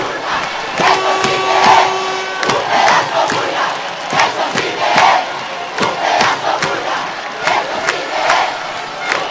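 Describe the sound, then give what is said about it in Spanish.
A loud crowd of carnival fans in Parque de Santa Catalina, at 12:38 at night, cheers and shouts continuously, with rising bursts of voices, sharp claps and whistles, and a sustained horn-like tone early on; no single speaker stands out. “Escuchamos a la afición escuchamos a la afición.”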